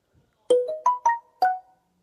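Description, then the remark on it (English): A short Samsung phone notification tone: four quick, bright electronic notes in a rising-then-falling melody, clear, with no talking around it. “it sounds like the Samsung notification”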